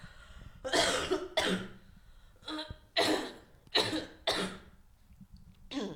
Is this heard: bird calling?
no